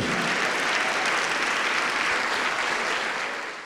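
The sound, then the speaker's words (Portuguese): A church audience applauds the Lord in a sustained, dense burst of clapping that stays loud and steady throughout, then begins to ease off slightly at the very end. “Vamos aplaudir mais, igreja, vamos aplaudir.”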